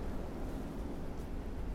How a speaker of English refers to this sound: Wow, it's really windy out here. Wow.